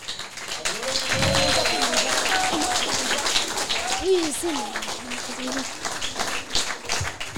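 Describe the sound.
A crowd applauds with steady, dense clapping for several seconds, joined by voices calling out and cheering over the claps.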